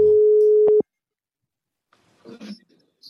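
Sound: telephone line ringing tone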